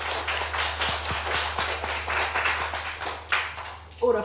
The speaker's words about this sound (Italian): Signore e signori, un grande applausometro!